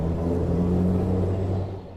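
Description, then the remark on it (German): A historic electric tram of the Kirnitzschtalbahn, a car built in 1957 by VEB Waggonbau Gotha, approaches along its track beside the Kirnitzsch stream with a steady, low electric motor hum and broad mechanical drone, continuous, easing off slightly toward the end. No voices. “Die nächste Bahn kündigt sich an.”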